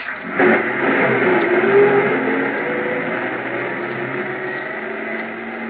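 A truck engine rumbles steadily with a low droning tone as the truck drives away through the snow, headlights on, holding fairly loud before easing off slightly as it continues. No one speaks.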